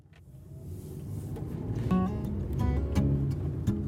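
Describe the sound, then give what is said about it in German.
Steady low engine rumble and road noise from inside a moving car on a roughly fifteen-minute drive to a temple in Frankfurt, Germany, with a few soft clicks and brief tonal chimes over the hum, growing slightly louder throughout. “Wir sind wieder im Auto, auf dem Weg zum Shinchonji-Tempel in Frankfurt.”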